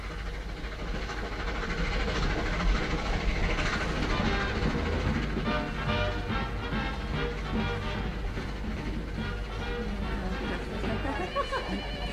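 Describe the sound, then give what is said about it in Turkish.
A train sways heavily as it rumbles and clatters steadily along the rails, a dense, loud rolling roar with a rhythmic rattle throughout, muffled voices mixed into the noise. “Tren çok sallanıyor düşebilirsin.”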